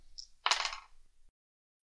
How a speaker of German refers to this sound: Und das muss ich jetzt erstmal auswürfeln. Und zwar sind das Rekaya und die Scouts, die alle schießen.